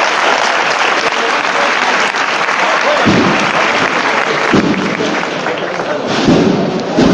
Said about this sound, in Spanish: Sigue avanzando con un pasito muy corto, la cuadrilla. Ya el paso completo en la cuesta. Cuando acaba esta interpretación se levantan los aplausos.